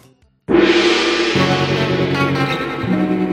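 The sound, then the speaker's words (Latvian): A quiz show signal marking the start of round two: a loud musical jingle bursts in abruptly after a brief quiet moment, then holds as a bright, full, sustained chord with shifting tones underneath, playing alone with no voices. “Signāls pēc signāla 2 kārta.”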